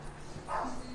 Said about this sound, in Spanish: No, porque ese es un perro que me trajeron. Ah, es delicado, delicado No, que ese perro lo dejaron aquí